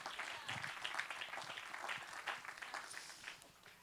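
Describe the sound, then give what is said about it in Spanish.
An audience at a church sermon breaks into sustained applause for the preached word, a dense, crackling wash of many hands clapping at once that stays fairly even for about four seconds, with a few louder bursts. “alabado sea Dios, Él está obrando en tu vida Aplauda esa palabra.”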